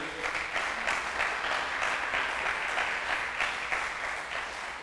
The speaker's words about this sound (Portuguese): Tem alguém aqui ou não? Então dá um aplauso a Jesus aí.